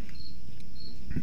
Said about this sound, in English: And so we've got four parakeets here budgies, they're called. You can hear them in the background there. And uh, their names are Miguel, Everett, Sundance, and Butch Cassidy. That's why you're hearing them right now.